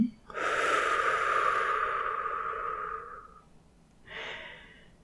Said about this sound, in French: Observez le simple mouvement naturel de votre souffle. Inspiration. expiration.